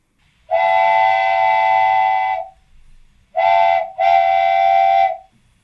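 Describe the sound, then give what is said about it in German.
A loud, shrill whistle sounds three times: one long sustained blast, a brief pause, then a short toot followed by a longer one, rich and steam-whistle-like, with no talking. “Das ist die Pfeife, die ihr normalerweise kennt als die Spoiler-Pfeife im Pixelbook-Podcast”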